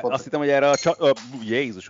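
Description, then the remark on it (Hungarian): A small metal coffee spoon, knocked over, clatters briefly against a hard surface in a few quick clinks, mixed in with a person talking and exclaiming over it. “elhajtottam közben a kávéskanalomat.”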